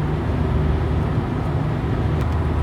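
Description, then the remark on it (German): Steady, loud road rumble from driving on a highway while overtaking a truck, with another truck still ahead, a continuous low engine and tire roar with no pauses and no voices. “naja, einen LKW habe ich hinter mir gelassen.”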